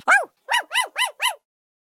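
The puppy Balou barks excitedly while jumping on a child and covering him with licks: five sharp, high-pitched yaps, one then a quick run of four, fairly loud, with no one talking.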